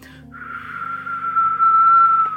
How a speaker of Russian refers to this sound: Но достигается это вот свистением. То есть э, я говорю посвисти. Когда человек свистит, разглаживается нижний подбородок, становится как площадка гладкая, подбородок вниз идет.